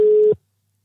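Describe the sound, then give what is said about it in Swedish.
A single steady electronic ringback tone of an outgoing phone call to a man, a pure sustained beep lasting about a third of a second before cutting off into silence, heard clearly. “Ska vi säga att vi ringer ett helt annat ärende?”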